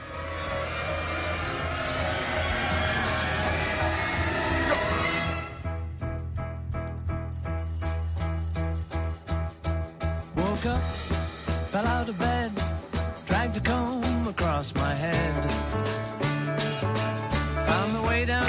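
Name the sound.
alarm clock ringing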